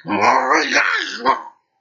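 A human voice imitates a big black dog, a loud, rough growling snarl that rises into a short bark-like burst near the end, then stops abruptly.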